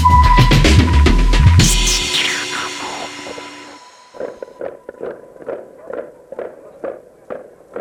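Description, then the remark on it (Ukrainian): Miners' helmets bang on the cobblestones of Hrushevsky Street in April 1991 in a steady, rhythmic pulse of sharp knocks, following a loud, tonal opening burst that fades away before the beating begins. “Цей гуркіт від ударів шахтарських касок по Бруківці на вулиці Грушевського.”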